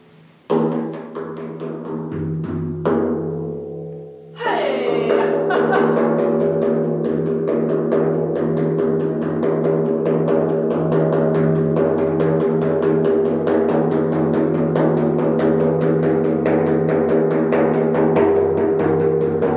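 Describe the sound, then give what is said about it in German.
A drum beats in a fast, steady rhythm with a deep, ringing resonance. It plays on alone without voices, fairly loud, after a brief pause near the start. “Und ja, hört den Klang der Trommel.”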